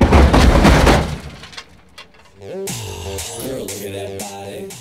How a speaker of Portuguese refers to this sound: O som de vidro espatifando preencheu meus ouvidos.